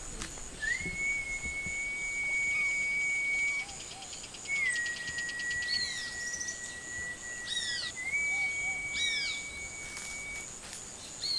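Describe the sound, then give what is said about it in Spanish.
A person whistles three long, steady, high notes with short pauses between them to call fish up while fishing, while birds chirp and insects buzz faintly in the background outdoors. “Ese pez peces tú ves arriba, lo tienes que llamar con silbido.”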